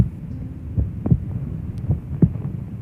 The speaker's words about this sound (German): Werden wir 75 Jahre alt, dann hat unser Herz bis dahin etwa 3 Milliarden Schläge getan. Drei Milliarden Mal haben sich die Herzklappen geöffnet und geschlossen, Schlag für Schlag in einem gleichmäßigen, kräftigen Rhythmus.